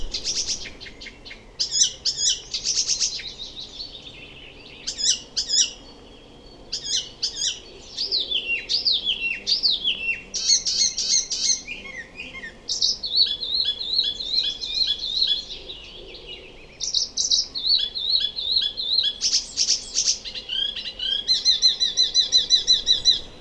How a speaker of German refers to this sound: Noch interessanter ist eigentlich, wenn Vogelarten selbst äh, versuchen, andere nachzuahmen und daraus ihren Gesang spinnen, wie es zum Beispiel der gerade angekommene Gelbspötter macht. Kennen Sie den?